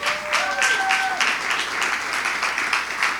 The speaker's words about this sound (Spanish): Un aplauso para todas las madres.